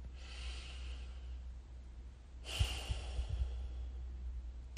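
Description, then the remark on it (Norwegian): Slow, deep breathing in a breathing exercise: one long airy breath drawn in for a count of five, a brief pause, then a longer, slightly louder breath out, over a faint low hum. “Kanskje puster du inn på fem og ut på fem et par runder. Myke, dype, rolig pust.”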